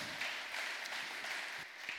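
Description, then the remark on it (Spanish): A church audience applauds to give thanks to the Lord, a dense wash of many hands clapping together at an even, moderate level with no voices standing out, sustained for the whole stretch. “Y si es su Señor, déle un fuerte aplauso y dígale gracias.”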